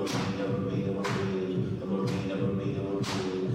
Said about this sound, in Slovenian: meče na odr bele brisače. Oziroma udarja ta zvok. In zdaj tudi ima vsako roko eno brisačo in udarja